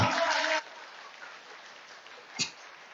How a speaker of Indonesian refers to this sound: Tetapi tepuk tangan luar biasa.